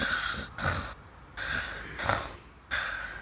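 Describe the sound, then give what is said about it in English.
A voice imitates soft snoring: a steady run of breathy snorts alternating with airy exhales, about five in quick rhythm, with no talking. “as he tries to like big spoon you because he's missing little and kind of snuggles into your back and and falls asleep as you all drift off to the soft sound of his little snores.”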